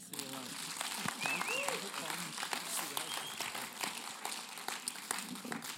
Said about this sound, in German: Können wir uns einen ernsten Applaus geben?